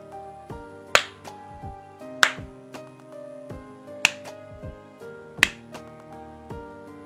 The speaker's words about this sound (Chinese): 人们呀，听到这尖利刺耳的声音，神经顿时绷紧，睁大眼睛寻找声源，不时响起了巴掌声。